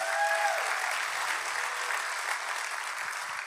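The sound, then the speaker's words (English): An audience claps steadily for the SCI Chester family, in partnership with God Behind Bars, who join the service online; a dense, even wash of applause that holds at a constant loudness throughout, with a brief high tone ringing out at the very start. “Let's clap for them.”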